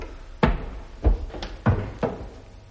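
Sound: studio door opening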